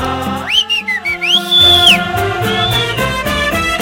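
A human whistle with a sliding, rising-and-falling pitch, sounding a few swooping notes over lively music with steady instrumental backing, with a fainter whistled phrase following.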